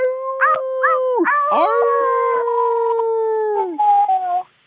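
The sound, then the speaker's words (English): Two or more people howl together like wolves, their long, wavering tones overlapping at different pitches, loud for several seconds before cutting off abruptly. “Wait, can we howl together? Because wolves have to howl in a pack, right?”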